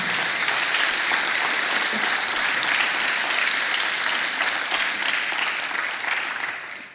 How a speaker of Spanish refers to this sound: ¿Cuánto le da un aplauso al Señor? Señor lindo.